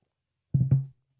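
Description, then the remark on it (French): A low gulping sound of someone taking a sip of a drink: two quick swallows in a row, the second trailing off into a soft throaty hum before silence. “Ah, c'était vraiment ça qui était prévu fameuse, fabuleuse gorgée de RSHD.”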